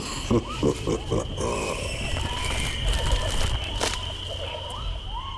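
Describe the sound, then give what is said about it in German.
Dense jungle ambience with monkeys moving about overhead: a steady high insect-like whine and layered background chatter, with a burst of rapid, rhythmic monkey calls early on and scattered shorter animal cries afterward. “du hörst es, wir stehen mitten im Dschungel. Die Affen turnen über unseren Köpfen”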